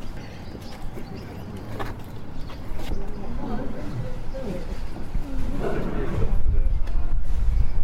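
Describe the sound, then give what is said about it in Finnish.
An Asiatic (Indian) lion gives a series of deep, rumbling roars and grunts, rising and falling over a busy outdoor background with faint voices. “Ja siinä karjahtelee Intian leijona.”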